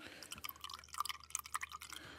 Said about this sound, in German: Und jetzt kommt tatsächlich der erste Apfelsaft an den Seiten rausgeschossen. Yay! Ah, oh, herrlich. Der ist auch schon ein bisschen braun, wahrscheinlich wegen dem Oxidierten. Mhm. Und füllt sich hier in dieses Glas rein.